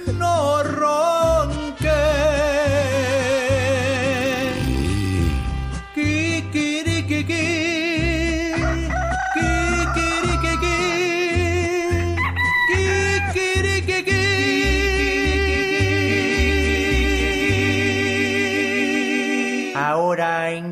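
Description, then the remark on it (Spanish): Rooster crowing over loud, continuous music with a steady, pulsing bass line; the wavering, high-pitched crows repeat throughout the track rather than standing alone. “Kikirikiki. Ay, no, ¿qué es eso?”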